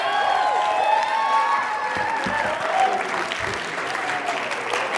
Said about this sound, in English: You can clap for Jesus. Come on, give it up for Jesus.